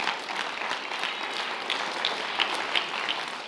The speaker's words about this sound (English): Let's stand up. Hallelujah. Thank you, Lord. Thank you, Lord. Just clap for Him. Worship God for a moment. Just thank Him.